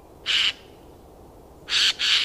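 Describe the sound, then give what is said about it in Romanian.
Three harsh, raspy screeches of a Eurasian jay, one alone and then two in quick succession, loud against a quiet background. “Gaița este un silvicultor deghizat în pasăre.”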